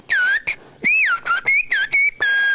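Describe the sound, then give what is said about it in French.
Whistled speech in Occitan: a clear whistle gliding up and down in pitch, broken into several phrase-like bursts with short gaps, mimicking the rhythm and intonation of spoken sentences, whistling a request to stop at the grocery and buy a tin of sardines and a baguette. “si on veut siffler l'occitan, le français ou l'anglais sweet, ben, ça va donner quelque chose qui ressemble à la version orale”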